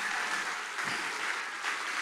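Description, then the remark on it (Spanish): A church audience applauds for the Lord in a steady, dense wash of clapping that fills the whole stretch at an even, moderate loudness, with no voices rising above it. “Iglesia, dale un mejor aplauso de ahí al Señor.”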